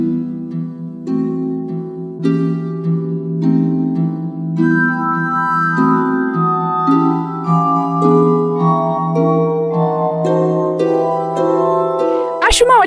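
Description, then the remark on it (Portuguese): A glass harmonica, a kind of mechanized copophone, plays a slow, continuous melody of pure, ringing tones that swell and overlap into sustained chords, fairly loud, ending with a brief sharp click. “A harmônica de vidro, ou gaita de vidro, nada mais é que uma espécie de copofone mecanizado.”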